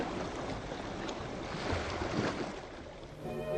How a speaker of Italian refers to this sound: Mettiamo a mare il battellino di bordo. Tutto serve per farci avvistare.